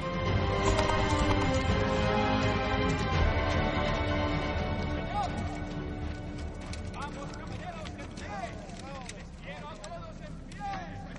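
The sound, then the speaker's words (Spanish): Horse hooves clop steadily as a rider crosses a bridge on horseback, the rhythmic beats on the hard, hollow-sounding surface sitting within a dense wash of music and background noise, with bright chirping sounds emerging toward the end. “Bingley cruza el puente a caballo.”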